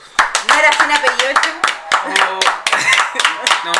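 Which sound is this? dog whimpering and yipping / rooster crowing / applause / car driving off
applause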